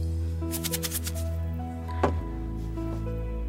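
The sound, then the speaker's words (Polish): An Aquafor water filter cartridge and a competitor's cartridge are shaken; the competitor's loose granules rattle in a quick burst of several gritty shakes, followed by one sharper knock, all over a steady low background hum with no talking. “Potrząsam wkładem Aquafor i wkładem firmy konkurencyjnej. Jaka jest różnica?”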